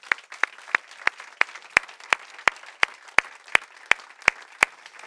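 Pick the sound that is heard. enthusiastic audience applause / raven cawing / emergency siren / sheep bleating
enthusiastic audience applause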